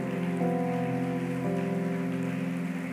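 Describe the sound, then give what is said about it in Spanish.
A church audience applauds loudly and steadily for God, a dense wash of clapping that never lets up, with sustained keyboard chords ringing underneath and changing twice. No one speaks. “Dale el aplauso fuerte si es para el rey.”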